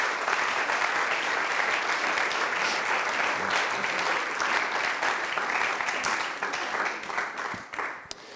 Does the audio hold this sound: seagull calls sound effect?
no